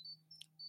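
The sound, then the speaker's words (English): A phone notification goes off: three brief, high electronic beeps in quick succession with a tiny click in the middle, faint and steady over a low hum, no voices. “sorry that was my phone”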